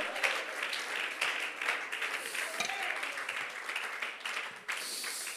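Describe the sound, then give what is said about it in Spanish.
An audience applauds God joyfully during a church service, a dense, steady wash of many hands clapping at once, sustained at an even loudness throughout with a brief dip near the end and scattered voices mixed in. “Alguien lo aplaude con júbilo en esta hora.”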